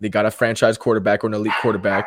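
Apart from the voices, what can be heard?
dog barking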